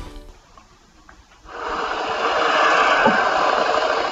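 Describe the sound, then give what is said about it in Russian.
A faint low rumble gives way to a motorcycle engine in Germany roaring up loudly, its harsh, steady growl holding for the rest of the moment with no one speaking. “Мотоциклистам в Германии хотят понизить звук.”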